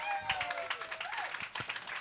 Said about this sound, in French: Ah oh ouais, on applaudit ça. Let's go. Let's go.